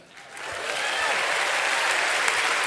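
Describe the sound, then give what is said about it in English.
A crowd breaks into applause for Tom Papa that swells quickly in the first half second, then holds as a steady, dense wash of clapping throughout. “Let's hear it for Tom Papa.”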